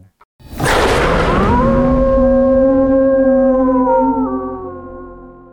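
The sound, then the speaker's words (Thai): A long, loud, sustained howl rises with a rough, growling onset, then holds steady tonal harmonics and slowly trails off. It is a designed sound that blends the howls of several kinds of dog with wolf and tiger sounds. “ตัวนี้จะให้ฟังเป็นเสียงอย่างเสียงหมาหอนหรืออะไรอย่างนี้ก่อนก็ได้ค่ะ ที่เราดีไซน์ให้มันแตกต่างจากน้องหมาที่เราเห็นอยู่ปัจจุบันหรืออะไรแบบนี้ค่ะ ครับผมอ่ะเสียงแรกคือเสียงหมาหอน”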